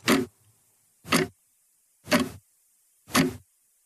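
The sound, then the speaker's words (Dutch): A mechanical watch ticks four times, one sharp, loud tick about every second, with silence between the beats and no voices. “Zo klinkt een horloge al lang niet meer.”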